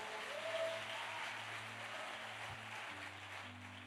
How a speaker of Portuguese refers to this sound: Você pode aplaudir os artistas globais, por favor?